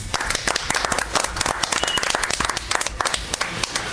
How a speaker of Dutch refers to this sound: Ehm, dus ze zijn er niet, maar toch even een applaus voor Vera en Maarten.